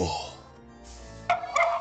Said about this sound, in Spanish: Y pues bueno, ya están hallando los perrillos de fondo. ¡Cállense, perros, hijos de su perra madre!